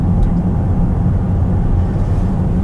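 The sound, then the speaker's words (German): A loud, steady synthesized motor sound from an electric car's artificial sound mode called 'authentic', a deep humming drone with a rumbling low tone that holds constant throughout, with no speech over it. “Also ich bin grundsätzlich kein Fan von künstlichem Motorsound, weder im Verbrenner noch im E-Auto.”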